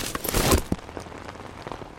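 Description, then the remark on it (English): Rain patters onto a hard surface, a dense rush of drops at first that thins into scattered, crisp individual splashes, with no voices. “Some things are made to cope with puddles and rain”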